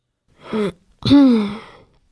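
A woman clears her throat in two voiced bursts: a short rough one, then a longer, louder one that slides down in pitch, with no speech around it.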